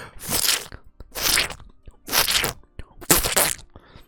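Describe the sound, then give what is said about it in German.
Four wet, squelching footsteps of boots through a puddle of blood, evenly paced about a second apart, fairly loud, imitated with the mouth, with no talking. “du trittst als erstes vor und trittst mit deinen Stiefeln mitten durch die Buchlache und du hörst nur so.”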